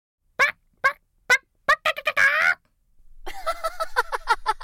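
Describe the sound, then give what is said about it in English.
A voice imitates a hen: several short, evenly spaced clucks, a drawn-out squawk, then a quick, busy run of clucking, fairly loud. “When the office assistant asked if I was there to pick up an entry form for the avant garde art show, I just froze and started clucking like a hen.”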